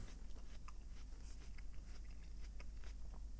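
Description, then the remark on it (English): Crunchy chewing of an Oregon Honeycrisp apple: a steady run of wet, crisp crunches repeating every fraction of a second, with no talking over it. “In fact, this is an apple.”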